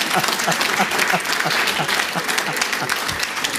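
An audience applauds together, a steady wash of many hands clapping that stays full and even for the whole stretch, with a few voices faintly mixed in.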